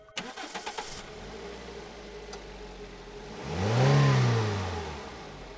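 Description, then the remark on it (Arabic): A car engine cranks with a quick series of starter pulses, catches and idles steadily, then revs up in a smooth swell before settling back to a running hum; a car in front of a house after midnight. “نهار سبعة وعشرين جويلية بعد نص الليل قدام دار براين وكريستينا يجي جيسون بالكهرباء متاعهم يسكت الموتور يزمر مرتين”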